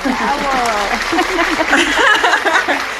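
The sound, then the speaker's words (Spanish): An applause sound effect: a crowd applauding steadily for about three seconds, the dense clapping mixed with excited cheers and whoops from many voices, loud throughout. “A ver, les voy a poner, aquí tengo también a gente aplaudiendo, escuchen.”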